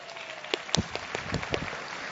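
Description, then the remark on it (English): A short burst of applause from a class for one of its members, a dense patter of many hands clapping with a few sharper claps standing out, holding steady for about two seconds without any voices. “Yes, y'all applaud her.”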